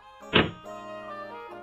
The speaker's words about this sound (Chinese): 格尔林先生想都没想，就砰的一声把门关上了。